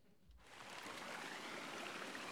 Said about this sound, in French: J'enregistre la rivière. On va enregistrer l'eau, l'eau de la rivière.